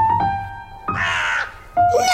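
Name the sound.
crow cawing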